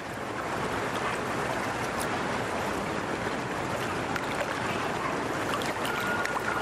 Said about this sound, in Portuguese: Água da represa. A mulher está boiando, agora de barriga para baixo, com parte da cabeça dentro da água.